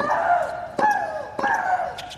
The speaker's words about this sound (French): Dans le monde de la petite balle jaune, Maria Sharapova possède la palme de celle qui crie le plus fort